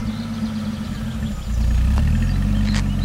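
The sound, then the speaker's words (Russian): A car engine idles with a steady low rumble, then revs up louder about halfway through as the vehicle pulls away, with a couple of faint clicks in the background. “Учительница пойдет пешком, а Таня и Карина падают в машину. И мы погнали”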